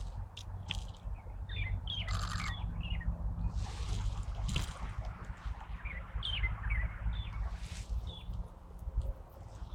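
light-vented bulbul calling

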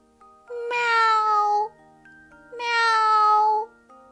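kitten meowing

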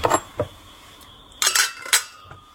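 glasses clinking

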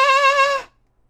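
sheep bleating

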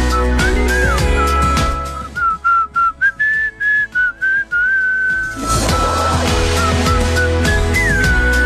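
whistled song melody

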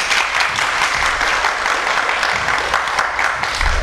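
audience applause

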